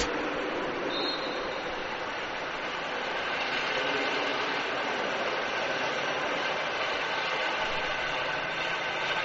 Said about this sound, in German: Währenddessen fliegt hier ein Hubschrauber über die Commerzbank Arena. Jetzt ist es so laut.